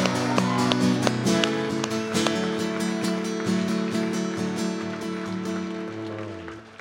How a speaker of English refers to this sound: All right, let's just give him one big round of applause.